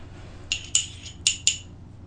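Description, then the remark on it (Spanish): Someone takes a second sip of a drink: four short, bright clinks of glass or ice come in two quick pairs over a low, steady hum, with no talking. “Bueno, ya terminado el primer tema, me voy a dar un segundo sorbito.”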